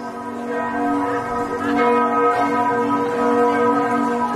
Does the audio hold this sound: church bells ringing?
yes